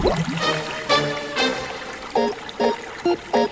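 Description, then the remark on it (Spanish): Fizzy lemonade water pours and splashes steadily, as a cascade of effervescent water falling into a lagoon, with bubbly gurgles and a few short, bright glugging bursts near the end; moderate loudness, no voices. “Estará en el fondo de la laguna de limonada que hay bajo la cascada de aguas efervescentes”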